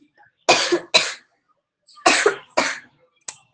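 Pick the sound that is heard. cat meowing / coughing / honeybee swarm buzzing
coughing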